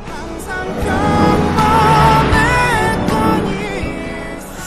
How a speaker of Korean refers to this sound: 자, 승객 여러분, 잠시 조용해 주시고요. 옆에 차가 지나갑니다. 창문이 열려 있어요. 음악 소리가 곧 들릴 거예요. 옆차에서 과연 어떤 노래를 듣고 있을까요? 들어볼까요?